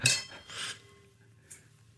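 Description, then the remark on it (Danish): Wine glasses clink together in a toast, three light taps spread over two seconds, each leaving a faint ringing tone that hangs briefly, with no voices. “Skål. Skål.”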